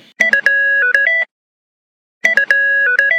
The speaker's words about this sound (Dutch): Herkennen jullie eh, deze ringtone nog, jongens? Ja, dit, de Jerry, kom maar door. Alle nostalgie borrelt naar boven. Totally Spice dus.